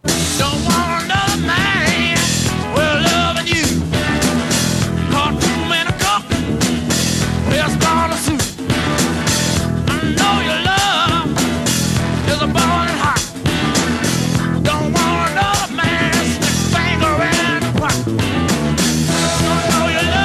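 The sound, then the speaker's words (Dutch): A loud, dense rock cover song plays continuously, with driving drums, full-band instrumentation and a steady, energetic rhythm throughout, and no talking over it. “Even een fragmentje, want het is echt een heel lekker nummer, vind ik zelf.”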